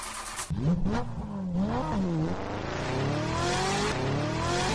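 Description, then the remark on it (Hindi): A car engine starts and revs up, its pitch climbing through several gear-like rises, then settles into a steady, loud drone as the vehicle drives off, taking a woman home, with no voices. “उसको वहाँ से उठा के गाड़ी में लेके घर जाने लगे”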